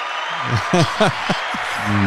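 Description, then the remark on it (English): A canned applause sound effect from a clap button gives a steady wash of clapping over about two seconds, with voices talking and laughing on top of it. “Yes, I, I had to label my clap button.”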